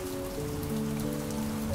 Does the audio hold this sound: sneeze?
no